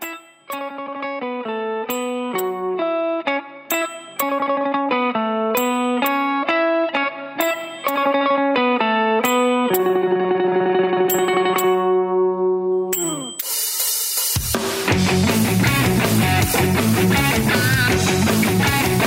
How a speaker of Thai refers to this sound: อันนี้เป็นเฮฟวี่เมทัลนะไม่ใช่ไม่ใช่ร็อกแบบธรรมดา